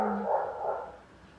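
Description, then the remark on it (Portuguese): A dog barks a couple of times, muffled, with a faint background hum and no voices. “Agora tem um cachorro latindo indo.”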